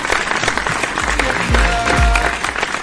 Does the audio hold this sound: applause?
yes